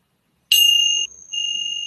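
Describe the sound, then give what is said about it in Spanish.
A meditation bell is struck once during a mindfulness practice, giving a bright, high, pure ringing tone that sustains clearly, dips briefly, then swells back and keeps ringing. No one speaks. “Ahora vas a escuchar el sonido de las campanas.”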